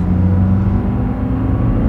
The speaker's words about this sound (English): The sound of a vehicle door is closed as a man rushes toward an open door. He closes the door quickly and speeds off in the vehicle.